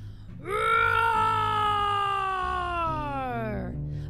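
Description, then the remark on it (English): The lion cub Kion roars in the Pride Lands: a single loud, drawn-out cry lasting about three seconds, strongly tonal, its pitch sliding slowly downward before it cuts off, over a low steady background. “Then Kion roars.”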